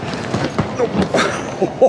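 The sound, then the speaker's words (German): A heavy suitcase packed with chocolate bars is hoisted and lugged, with a series of dull thumps and knocks at an irregular, plodding rhythm, ending in a louder bump. “Äh, warte, ich, ich hefte mit dem Koffer.”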